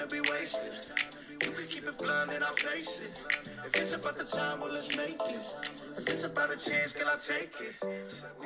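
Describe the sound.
A song snippet with a singer's melodic vocal line over a steady beat of crisp finger snaps and layered instrumentation, played continuously at moderate loudness.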